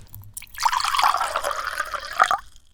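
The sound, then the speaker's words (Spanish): Water pours steadily into a glass to drink for about two seconds, a bubbling trickle that ends with a couple of final splashes, with no one speaking. “Tomemos un poquito más de agua, ¿querés?”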